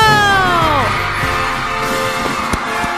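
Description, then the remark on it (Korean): A loud, sustained roar of a crowd cheering and shouting at the start of the Funky Saturday dance party, with overlapping whoops and yells, one voice swooping down in pitch early on, and a sharp bang-like accent near the end. “오늘은 처음부터 함성 소리가 큰데요.”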